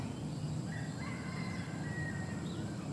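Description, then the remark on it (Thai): Faint bird and chicken calls drift over a low, steady outdoor rumble, with wind blowing through leaves, a few thin chirps and a soft fowl-like call, no voices present. “ทางหูก็มีเสียง สังเกตมีเสียง เสียงนก เสียงไก่ เสียงสายลมพัดต้องใบไม้”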